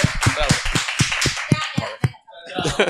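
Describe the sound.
Brisk, steady applause of sharp, evenly spaced claps about four per second, with voices underneath; the clapping thins out and stops, leaving talking and murmuring at the end.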